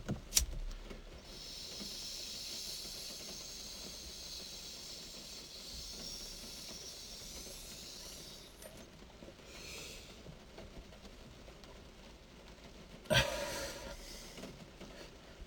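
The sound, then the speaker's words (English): Someone draws smoke through a pipe: a long, steady airy hiss for several seconds, then a shorter soft draw and a sudden crackling puff. No one speaks. “I mean, I probably have a dirty uh not a pipe, but a a screen, and I'm sure that that is affecting a, uh, a little bit of the taste and the way that this is burning.”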